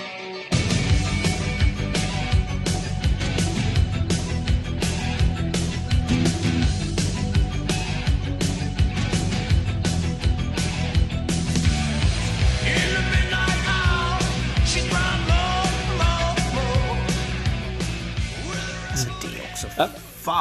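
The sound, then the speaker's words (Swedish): Loud, dense punk rock with driving drums and distorted guitars, a vocalist shouting and screaming over the top throughout, steady and relentless for the whole stretch. “Ja, och som det inte räcker med att vara punk då så måste man tala om att nu kommer jag vara rebell och jag kommer fan skrika på den här plattan så håll i er.”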